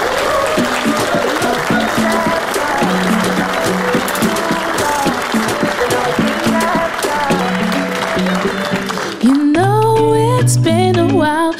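Loud, sustained audience applause fills the first nine seconds over an upbeat band intro, then fades as a singer's voice comes in over the music.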